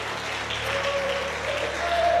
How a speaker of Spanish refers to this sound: Si usted puede darle palmas al Señor.